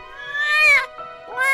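A cat meows twice: a long, drawn-out, high-pitched cry that rises and then falls, followed by a shorter meow starting at the end. Both are fairly loud, with no talking.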